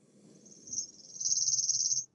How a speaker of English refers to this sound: here is, for example, a chipping sparrow.